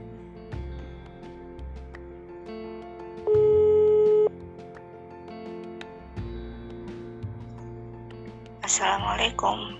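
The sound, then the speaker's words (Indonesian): A single loud ringback tone, about a second long, of a phone call being placed to a friend, sounds over soft background music, followed near the end by a short burst of crackly, noisy rustle. “Langsung aja, aku mau telepon dia.”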